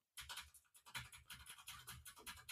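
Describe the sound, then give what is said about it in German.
Rapid, continuous clacking of a mechanical keyboard being typed on, a dense run of crisp key strikes with no voices. “Wenn ich dagegen, ich, ich tippe mal hier auf meiner mechanischen nebendran”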